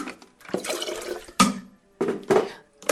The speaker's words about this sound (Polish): Zaparzam wodę